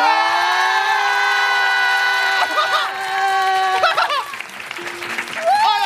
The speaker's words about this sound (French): C'est un événement La foule en délire